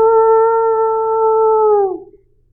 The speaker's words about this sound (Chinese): 莫卡抬起头。看着金色的月亮，使出了浑身的力气，像狼一样放声嚎叫起来：“嗷呜！”